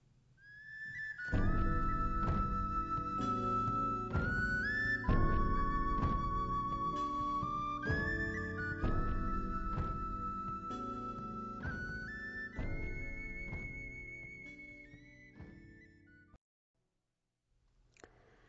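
Gentle instrumental theme music from the 2005 Japanese film Hoshi ni Natta Shōnen (The Boy Who Became a Star), with a sustained high melodic line over warm, steady low chords, playing continuously and fairly loud before fading out near the end, with no voices.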